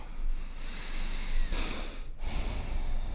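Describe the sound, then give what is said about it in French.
A slow, deep breath taken during a guided relaxation exercise, a long airy inhale swelling briefly before cutting off, with soft low rumbling background and no talking. “Fermez les yeux. Respirez profondément.”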